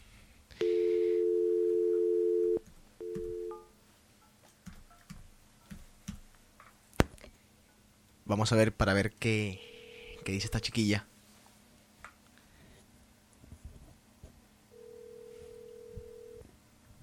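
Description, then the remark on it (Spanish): A steady dial tone sounds, then a quick run of keypad beeps as a number is dialed, followed by a ringing tone on the line, with a voice speaking briefly in between. “Bueno, eh, entre otras cosas, vamos primero a llamar a comenzar a hacer la llamadita.”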